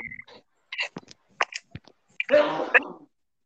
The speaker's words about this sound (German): Gesundheit.